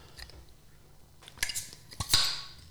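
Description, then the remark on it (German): Small pop of a Citra Helles beer bottle being opened, preceded by a few sharp metallic clicks and a bright hissy burst at the end. Short and fairly quiet, with no talking. “Dann kam da zumindest ein kleiner Plop.”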